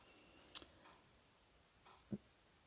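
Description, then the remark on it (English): Two faint, isolated ticks from a metronome, spaced about a second and a half apart against a quiet background, the second lower and duller than the first. “If you can hear off in the background, you will hear a metronome.”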